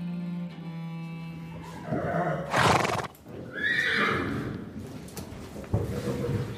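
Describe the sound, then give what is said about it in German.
A horse neighs loudly in a couple of shrill, quavering whinnies, with hooves clip-clopping on hard ground throughout, and a low hum at the start. “hat mir von diesem Pferd vorgeschwärmt. Das wollte ich mir auch mal ansehen.”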